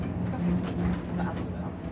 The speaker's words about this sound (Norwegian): Vi nærmer oss Fannrem, dagens endestasjon. Som museumsbane kjører vanligvis toget til Bårshaug, som er sentrum i Orkanger. Men sporet går helt ned til Tamshamn hvor svovelkisten i sin tid ble skipet videre.